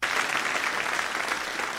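Steady audience applause, a dense patter of many hands clapping at an even, sustained level for the whole stretch, with no voices standing out.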